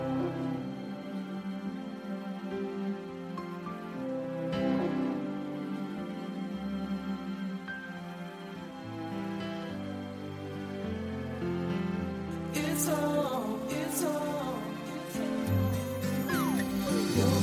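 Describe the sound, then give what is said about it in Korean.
A pop song plays steadily with layered, sustained chords and bright chiming tones, picking up crisper percussive hits in the later part. No one talks over it. “노래 한 곡 듣고 올게요.”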